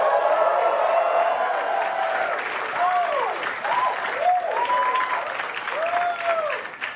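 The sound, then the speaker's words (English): An audience applauds steadily for several seconds after a comedian says he is cancer free, dense clapping with a few whoops and cheers rising over it, fairly loud. “You're clapping, but no one actually cares about testicular cancer.”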